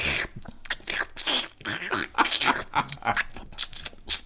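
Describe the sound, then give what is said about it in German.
A person imitates loud, wet smacking while chewing at the table, a rapid irregular series of clicks and squelches lasting a few seconds. “Also Schmatzen am Tisch. Da könnte ich an die Decke gehen.”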